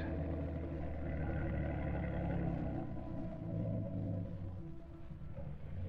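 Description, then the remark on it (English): A motorboat engine drones steadily as the boat comes toward a boathouse in thick fog, a deep continuous rumble with a throbbing low hum that holds fairly even in loudness throughout, with no voices. “There's a motorboat coming toward the boathouse now.”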